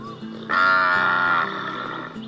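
A cow on a farm moos: a low, droning call that swells into a loud, brassy bellow for about a second, then eases back to a steady hum. No voices are heard.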